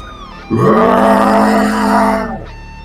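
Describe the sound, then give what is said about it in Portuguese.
A loud, drawn-out scream of pain from someone struck by a blow, about two seconds long, with a low, strained, groaning voice that swells and then tapers off before a brief quiet. It stands alone, with no talk over it. “E vocês só ouvem um grande grito de dor.”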